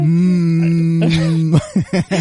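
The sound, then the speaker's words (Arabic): A voice imitates a car engine being started while cold, in cold weather: a steady, loud buzzing hum for over a second, then a few choppy, sputtering bursts like the motor catching and coughing. “اذا شغلت السيارة وهي باردة انا مصمم اعطيكم الصوت حلو.”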